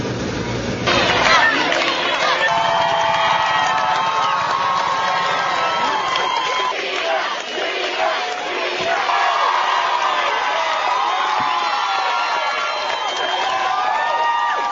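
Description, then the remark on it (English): A large crowd of onlookers in Cleveland cheers and shouts continuously as a police motorcade parts the crowd for Amanda Berry's homecoming on Wednesday, a dense wash of excited voices and whoops that stays loud throughout, with scattered higher yells rising above the roar. “A police motorcade parted crowds of cheering onlookers as Amanda finally arrived home Wednesday.”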